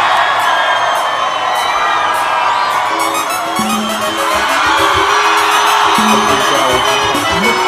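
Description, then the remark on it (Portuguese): A large crowd at a forró show cheers and shouts continuously, with whoops and high yells rising over a dense, loud roar of many voices throughout. “Olha o público, seu capital, seu capital”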